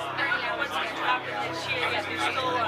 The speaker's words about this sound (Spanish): Eh, por favor, producción charlan, escuchen el, sonido ambiente, ¿no? Gente.